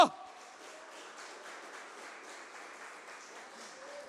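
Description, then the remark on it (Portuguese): A church audience applauding the Lord Jesus loudly together, a steady dense wash of many hands clapping that holds an even, moderate level for several seconds after a brief sharp start. “Aplauda o Senhor Jesus bem alto.”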